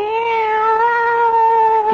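A cat in a kitchen lets out a long, sustained yowl as it attacks, loud, holding one strained, wavering pitch for about two seconds with no other sounds around it.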